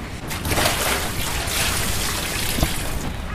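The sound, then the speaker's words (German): Water sloshes and splashes steadily as a person gets into icy, very cold water, a busy churning wash with one sharper splash near the end, and no voices. “Wie fühlst du dich jetzt, wo du im eiskalten Wasser bist?”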